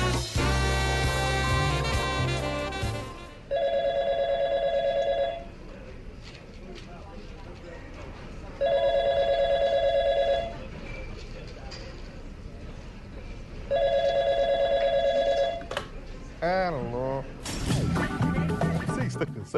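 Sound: telephone bell ringing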